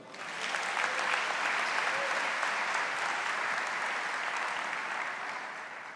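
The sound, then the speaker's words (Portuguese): A large crowd applauds Jesus at a preacher's call, steadily for several seconds, a dense wash of clapping that swells quickly, holds at full strength, and tapers slightly toward the end. “Quem ama esse Jesus, aplauda ele.”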